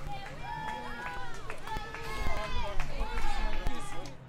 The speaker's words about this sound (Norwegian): Han puster tyngre, og hvert skritt faller hardere og hardere mot bakken.